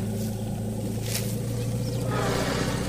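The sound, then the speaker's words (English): Wild animals vocalize in reaction to a sound played from a camper van, a deep, continuous rumble that holds steady for the whole few seconds, with a faint rising hiss and rustle near the end. Nobody speaks. “You can even hear them vocalizing.”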